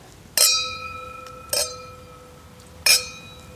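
wine glasses clinking

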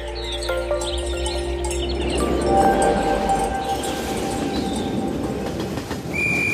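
train departing

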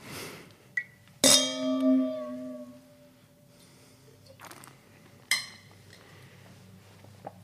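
wine glasses clinking

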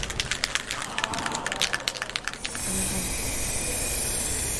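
spray paint can spraying

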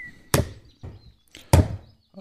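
hammering

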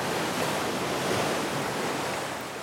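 sea ambience

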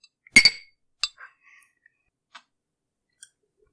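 glasses clinking

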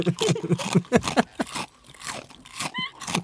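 crunching and chewing snacks

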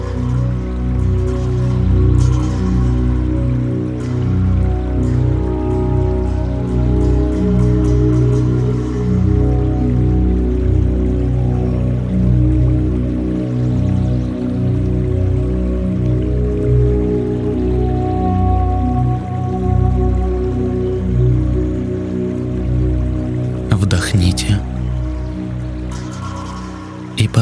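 flowing river water

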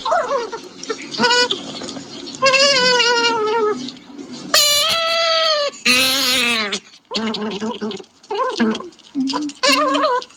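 baby goat bleating

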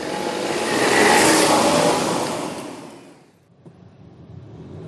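car driving off

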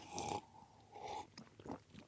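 slurping coffee

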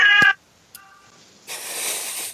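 cat meowing

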